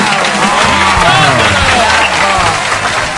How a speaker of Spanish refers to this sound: Un aplauso fuerte para ella, por favor.